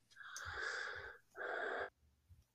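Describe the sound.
A voice imitates a mechanical respirator's breathing: one long, raspy hissing inhale followed by a shorter, harsh exhale, fairly loud, with no talking.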